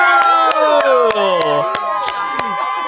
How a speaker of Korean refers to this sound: 박수 박수 박수